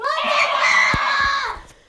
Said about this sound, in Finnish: Täällä ei tarvi nyt tuolla tavalla huutaa eikä mitään. Molemmat nyt! Ihan oikeesti!